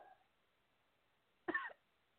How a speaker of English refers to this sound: Cough it out, sister. Cough it out.